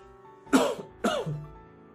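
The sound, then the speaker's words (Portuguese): Two sharp coughs about half a second apart, the second trailing into a rougher throat-clearing rasp, with no talking around them; the coughing is caused by mate powder caught in the throat. “O problema do mate é que fica de vez em quando um pozinho na garganta, aí fica difícil, acaba tossindo.”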